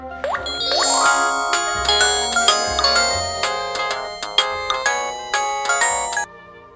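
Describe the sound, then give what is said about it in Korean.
A bright, chiming phone ringtone for an incoming call from a neighbourhood acquaintance plays a quick melodic pattern of bell-like notes over a soft bass pulse, loud, for several seconds before cutting off abruptly. “그후 까맣게 잊고 있었는데 어느 날 동네 지인에게 전화가 왔다.”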